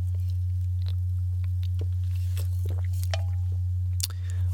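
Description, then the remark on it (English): Wet mouth sounds of someone drinking sparkling water: small fizzy crackles and clicks, a few gulps and swallows, over a steady low hum with no talking. “Oh man, fucking sparkling water is so good.”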